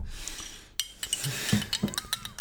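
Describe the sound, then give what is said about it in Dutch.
A teaspoon clinks repeatedly against a coffee cup, several bright, quick metallic taps in an uneven rhythm, fairly soft, with no one speaking. “Hoezo moet ik een eh, lepeltje eruit halen? Omdat het zo tikt, bedoel je?”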